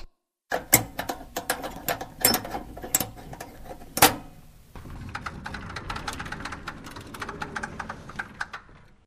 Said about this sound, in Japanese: 貸し出しカウンターの奥に扉があるでしょあそこが閉鎖書庫。今、鍵開けるね。